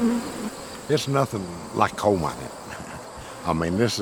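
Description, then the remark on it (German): Honeybees buzz around beehives being inspected by a beekeeper, in overlapping, wavering drones that rise and fall in pitch as they fly past, fairly loud and steady throughout with no voices. “Die Bienen waren für ihn lange Zeit nur ein Hobby.”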